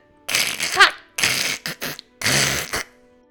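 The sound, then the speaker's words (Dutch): Icicle bars tumble and crash down in a series of bright, brittle bursts of clattering ice, a few quick smashes followed by a longer shattering tumble, fairly loud with no voices. “Alle ijspegeltralies tuimelen naar beneden en het drietal kan er weer uit.”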